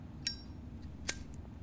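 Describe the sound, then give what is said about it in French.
A silver cigarette lighter being lit to light a cigarette: two sharp metallic clicks about a second apart, fairly crisp, with a faint ringing tone, over a quiet low background hum. “Elle sortit une cigarette, puis l'alluma à l'aide de son briquet d'argent.”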